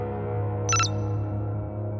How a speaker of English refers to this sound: A chime announced Cassus's update was installed, and the AI came back online.